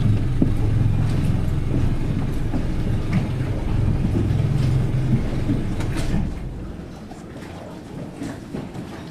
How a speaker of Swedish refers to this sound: Okej, okay, jag måste stänga motorn.